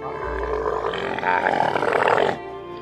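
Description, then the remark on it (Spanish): A camel, filled with books and used as a mobile library travelling the Gobi Desert in Mongolia, lets out one long, throaty grunting roar, loud and rough with a deep rattling growl, lasting about two seconds before cutting off abruptly. No one speaks. “Se compró un camello.”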